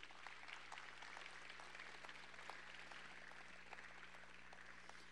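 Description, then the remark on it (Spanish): Steady applause from a crowd fills the room, dense overlapping claps holding at an even level throughout with a low hum underneath and no speech. “Denle un aplauso, claro que sí.”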